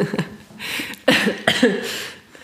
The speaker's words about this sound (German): Jedes Husten zählt übrigens.